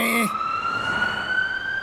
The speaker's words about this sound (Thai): นั่นรถพยาบาลที่เจ้าเรียกมาหรอไวจริง เปล่าจ้ะข้ายังหาเบอร์อยู่เลยถ้าทางรถพยาบาลจะผ่านมาพอดีน่ะ